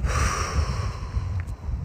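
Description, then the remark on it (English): A long, deep breath pushed out through the nose, a steady airy rush with a soft low rumble that lasts nearly two seconds, fairly loud with no talking. “Breathe it out.”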